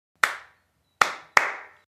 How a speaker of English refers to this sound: To play this game, all you need to do is clap back the rhythm of everything I say after I say it.